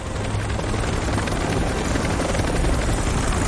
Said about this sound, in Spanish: El helicóptero sobrevuela un bosque montañoso. Aterriza en un claro.